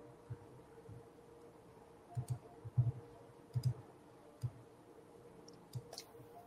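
Soft, faint mechanical clicks tick along irregularly, some coming in quick pairs, over a quiet low hum, as the combination dial of a safe is turned slowly and carefully by hand. No one speaks.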